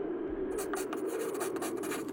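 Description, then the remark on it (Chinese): A brush writing with ink on paper as Cao Huoxing writes, with quick, irregular scratchy strokes in a steady run after a brief quiet start, over a constant low hum. “风声呼啸，曹火星的手指不住地颤抖，用笔墨和泪水描绘着战火纷飞的革命时代。”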